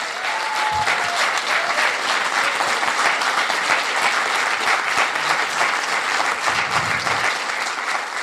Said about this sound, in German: Applaus danke.